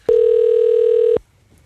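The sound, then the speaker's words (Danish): A single steady telephone ringing tone of a call to the Danish Language Council's (Dansk Sprognævn) question line in Bogense, Denmark, sounds once for about a second, loud and clear with no one talking, then cuts off abruptly into near silence. “Øh, jeg ringer med to lytterspørgsmål, som jeg håber, du måske kan hjælpe mig med.”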